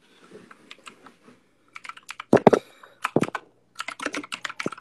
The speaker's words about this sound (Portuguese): Cara, o barulhão, velho. Como assim, barulhão? Barulhão do teclado. Rapidinho, deixa eu terminar de escrever. Tá um barulhão muito, muito alto, velho.